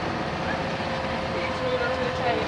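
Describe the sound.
Steady engine rumble and road noise fill the inside of a moving bus, a constant, moderately loud drone with faint muffled voices beneath it.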